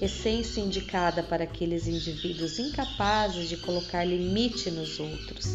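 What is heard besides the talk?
small birds singing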